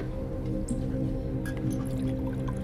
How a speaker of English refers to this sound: He pours me more scotch.